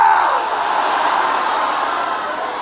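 A large church audience shouts together "Acorde, irmão. É hoje" in one loud, sustained burst of many voices, filling the space for a couple of seconds before easing slightly.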